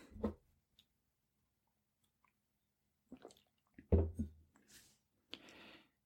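A wine glass holding wine is handled with soft clunks and light clinks, followed by quiet wet sipping and mouth sounds, all in short scattered bursts with no talking.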